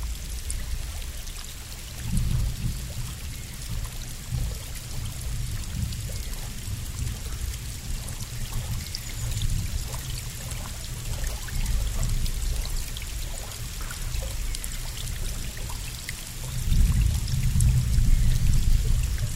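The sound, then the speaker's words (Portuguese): Steady trickling water from a small stream at a river spring, continuous, with a fuller gurgling surge near the end and no voices. “Continuamos dentro da água, junto à nascente”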